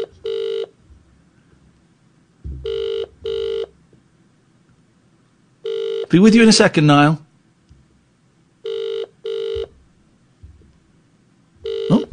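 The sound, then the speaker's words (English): A telephone ringback tone on an outgoing call: steady double rings repeating in pairs with pauses, a man briefly speaking between rings over a low background hum. “Um, let's let's phone her up.”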